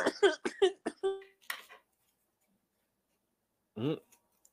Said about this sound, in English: And while he's over there coughing